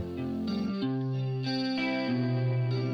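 Instrumental opening of a rap song: loud, sustained synth chords with a chorus-like, slightly distorted sheen shift to a new chord roughly every half second, with no vocals yet.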